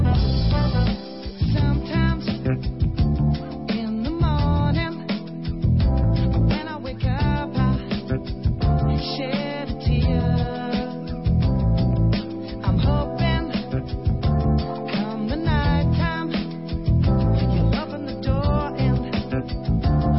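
A recorded love song plays continuously and fairly loud, with a full band arrangement, steady beat, and sung melody, with no one talking over it.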